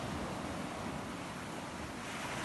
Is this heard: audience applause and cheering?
no